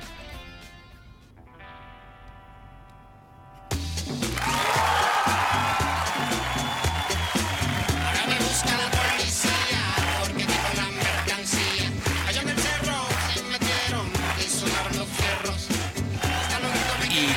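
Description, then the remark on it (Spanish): A radio segment jingle opens with soft, sustained synth tones, then a loud full-band section bursts in with a steady, driving beat and bright melody, playing without any voices. “cuando todos ustedes escuchan esta cortina maravillosa, saben que vamos a empezar a hablar de él.”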